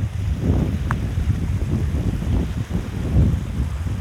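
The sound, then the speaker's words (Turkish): Steady wind buffets the microphone outdoors in a natural setting, a constant low rumble with gusty surges and a brief higher tone near the start, with no talking. “Biraz cel var, rüzgar var ama olsun.”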